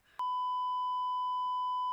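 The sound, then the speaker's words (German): A loud, steady censor beep kicks in almost immediately and holds one unbroken pitch for nearly two seconds, completely covering a spoken name, with no other sound around it. “Jetzt habe ich den Namen gesagt. Du musst piepsen. Okay, ich pieps.”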